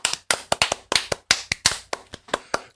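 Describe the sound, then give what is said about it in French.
A small group applauds with brisk, uneven claps, a steady patter of sharp hand slaps lasting a few seconds, moderately loud with no voices. “Un épisode un peu spécial une nouvelle fois puisqu'il s'agit du premier épisode de la saison 2 et rien que pour ça on peut s'applaudir.”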